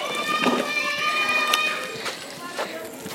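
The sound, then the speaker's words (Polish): A steady wash of children's voices heard while walking past a kindergarten, high-pitched shouts and squeals overlapping continuously, with a few sharper cries standing out from the busy chatter. “O, ale hałas, przechodzimy właśnie koło przedszkola.”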